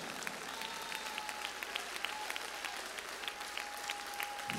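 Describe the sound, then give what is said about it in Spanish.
A crowd applauds steadily, many hands clapping in a dense, continuous wash with scattered sharper claps standing out, holding an even level throughout. “dale un aplauso fuerte, dáselo, bien fuerte.”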